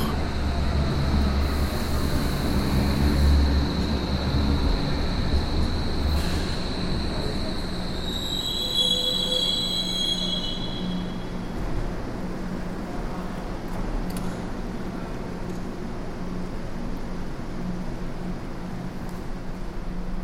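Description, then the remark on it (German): A subway train in Hamburg emerges from the tunnel and rumbles loudly into a station, a steady heavy roar of wheels on rails with high metallic squeals of wheels and brakes partway through, then settling into a lower, steady rumble. “Wie von selbst drehen die wenigen Köpfe hin zum Tunnel, erwarten drei weiße Lichter, bis der Schall rechts die Ohren trifft die Stille durchbricht, wie der Zug das schwarz klaffende Loch.”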